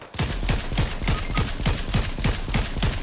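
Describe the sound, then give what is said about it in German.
Rapid automatic gunfire from a video game, a steady stream of sharp shots about four per second, loud, continuing without pause and with no talking. “Bro, ich triff keinen Schuss mit dieser scheiß Waffe.”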